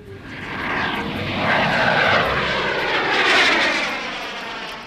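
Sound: airplane engine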